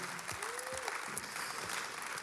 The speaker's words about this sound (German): Und lass uns für das Gott einen Applaus geben.